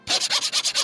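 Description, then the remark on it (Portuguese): A person rapidly and rhythmically scrapes a laptop, about seven quick back-and-forth strokes with a raspy, bright texture, fairly loud with no voices. “Opa, eu que tô raspando tá o notebook aqui.”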